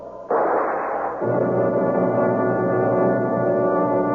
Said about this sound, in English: I heard it. A gun went off.